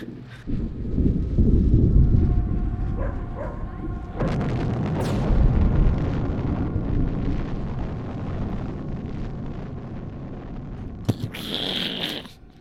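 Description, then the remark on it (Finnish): A deep, booming nuclear bomb explosion sound effect swells into a long, heavy roar of rumbling debris and wind that rolls on for several seconds, ending with a brief sharp crackle. “Mä ajattelin, että me otetaan tähän jonkun semmoinen efekti ja, ja laita tänne jotain myrskyjä, ydinpommi, ääni.”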